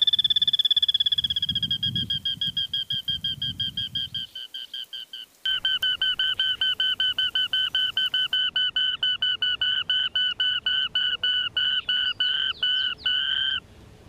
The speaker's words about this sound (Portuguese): Quem emite esse barulho é uma ave pequena, inofensiva, que é muito mais escutada do que observada.